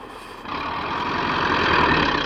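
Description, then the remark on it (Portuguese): A truck engine runs with a steady rumble that surges louder after a brief quieter moment, then holds and swells slightly. There are no voices. “O seu caminhão é bárbaro, hein, cara?”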